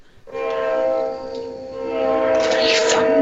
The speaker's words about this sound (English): I'm sorry, a train's going by right now.